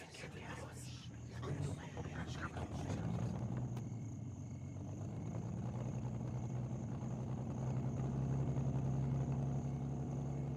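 The engines of two cars rumble as they arrive, a low droning growl that builds steadily in loudness and pitch over about ten seconds as the vehicles approach.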